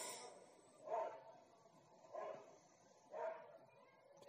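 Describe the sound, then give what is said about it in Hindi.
Three separate barks from a dog, spaced about a second apart, with a faint hiss of background noise between them and no talking. “एक मिनट कुत्ते भौंक रहे थे यहाँ पर”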